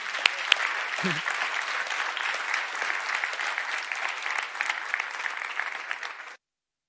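Steady applause from a church audience in Bern welcoming a guest preacher: a dense, even clatter of many hands clapping for several seconds at a constant level before it stops abruptly, with a brief low vocal sound early on.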